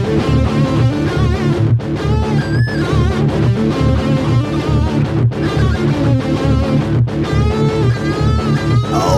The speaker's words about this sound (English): Guitar solo. Guitar solo. Free metal.